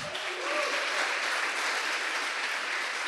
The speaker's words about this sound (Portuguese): Vamos recebê-lo com uma salva de palmas?